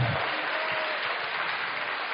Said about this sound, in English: Come on, come on, you want to give God a good clap offering? Let's give him a good clap offering. He deserves our praise.